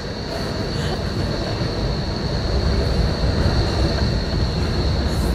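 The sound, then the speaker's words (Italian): A tram rumbles past, a steady loud low-frequency roar with a thin high metallic whine running through it, filling the whole few seconds without a break. “Aspetta che passa il tram, lascia sentire il tram.”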